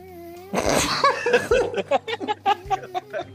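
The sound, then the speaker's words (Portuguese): A short, sputtering fart-like noise made by blowing on fingers bursts out, followed right away by a run of rhythmic, breathy laughter. “Ah, eu descobri que eu consigo fazer barulho de peidinho assoprando os dedos.”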